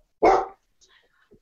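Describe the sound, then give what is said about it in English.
A single loud, sharp dog bark as people come in, followed by a moment of quiet with faint background noise and a hint of movement. “my dog decided to bark because there's people coming in.”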